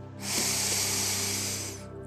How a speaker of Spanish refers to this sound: Cuando necesites hacerle frente a una situación tensa o difícil, puedes utilizar las técnicas de respiración para obtener mayor tranquilidad. Empieza respirando profundo.